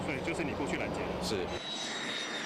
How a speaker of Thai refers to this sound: หลังเครื่องบิน F16V ร่อนลง ยังไม่ดับเครื่องแต่จะถลายเข้าไปที่สถานีฉีดล้างอัตโนมัติ